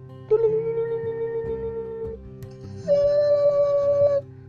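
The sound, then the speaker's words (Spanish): Two long, drawn-out moaning tones, the first held for about two seconds, then after a short pause a second, higher-pitched moan, steady and fairly loud over a low droning background. “Nunca sabes cuándo unos gemidos pueden haber. Como ahora.”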